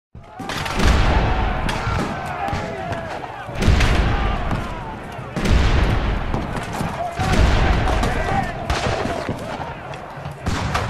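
Heavy war cannons fire repeatedly in a hot summer in early 1881, loud booming blasts roughly every two seconds, each followed by a rumbling roar, with a continuous din of battle noise between shots.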